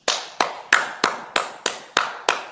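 Applause in a steady rhythm: about eight sharp, loud claps evenly spaced roughly three per second, each with a quick fade, and no voices.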